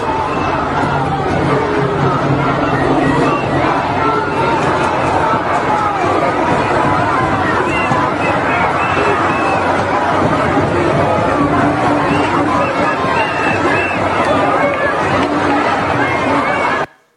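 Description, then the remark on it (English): A large protest crowd in London chants and shouts together, "to the river to the sea," a dense, loud wall of many voices that carries on steadily for the whole stretch without pause. “All chanting to the river to the sea, right?”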